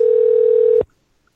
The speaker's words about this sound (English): and the dial tone.